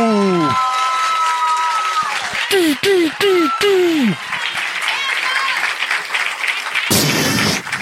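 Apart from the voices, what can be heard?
audience applause and cheering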